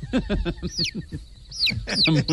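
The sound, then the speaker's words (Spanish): A small pet baby chick's high, sliding peeps repeat in quick bursts, with a short pause midway and busier chirping near the end, over some low background noise. “El paisa es, eh, el, paisa es una, mascota, es un pollito que tenemos.”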